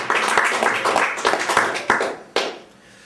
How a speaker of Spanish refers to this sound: ¿Cuánto dicen aleluya? Amén. ese aplauso, den ese aplauso por si lo merece.